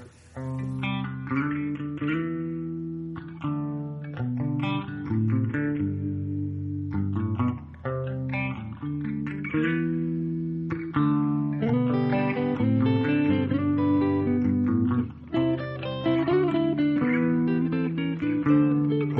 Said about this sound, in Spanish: Para suavizar un poco el ambiente, vamos a pasar a escuchar unos minutos musicales.